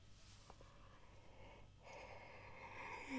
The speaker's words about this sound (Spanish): ¿por qué estoy bostezando tanto? Que me he levantado, me he acostado tarde también estos días también, así que es mi culpa.